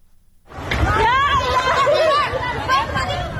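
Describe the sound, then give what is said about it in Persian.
Panicked cries from flood-stricken villagers in Dashtiari, Sistan and Baluchestan province, Iran, many overlapping voices shouting and calling out at once, loud, starting abruptly after a brief moment of quiet and continuing without pause. “این صدای وحشت مردم سیل زده دشتیاری است زنی تا کمر در آب ایستاده و فرو ریختن خانه خشتیگلیش را نظاره می کند”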